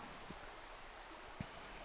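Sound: flowing stream water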